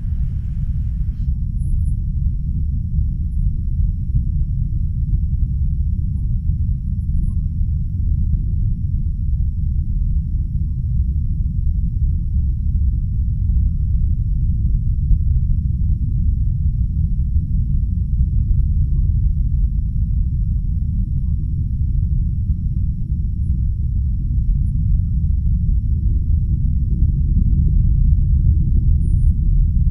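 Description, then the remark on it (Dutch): A deep, continuous rumble like thunder, recorded from deep inside the earth, rolls steadily for the whole stretch, loud and low, with slow swells in intensity and no voices or other sounds above it. “Het was een hele lange stilte en ergens in het midden was een soort heel erg diep onweerachtig geluid.”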